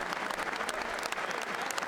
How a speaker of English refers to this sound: That's why tons of applause, of course, coming from both sides.